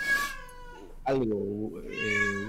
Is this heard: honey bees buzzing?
no